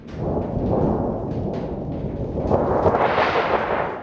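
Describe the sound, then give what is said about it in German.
A thin metal thunder sheet, about one by one and a half metres and 0.8 millimetres thick, is shaken, producing a continuous rattling, booming rumble that swells and turns brighter and more clattery toward the end, with no voices. “Das ist einfach nur ein schepperndes Blechgeräusch. Das ist eigentlich ein jämmerlicher Ersatz für, für irgendwelche Wind- oder Sturmgeräusche.”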